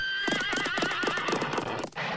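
A horse gallops with a rapid, steady clip-clop of hooves while a high, wavering whinny rings out over it, then the sound cuts off abruptly near the end.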